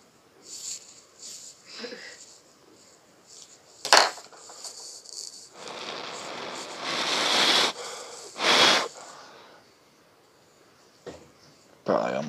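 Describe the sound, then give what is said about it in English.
A sharp click of a lighter as someone lights up to smoke, followed by a long hissing inhale and wheezy breaths, with a few shorter puffs and sniffs scattered around; no talking. “So, with that said, let's uh, let's light this and discuss what the fuck's been going on lately.”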